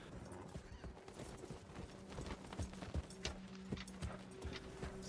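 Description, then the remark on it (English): Steady clip-clop of horse hooves as Jon Snow rides his horse forward at a walking pace, clear, with a faint whinny and some background rumble, no talking. “we see Jon Snow sort of behind his man riding forward with his horse.”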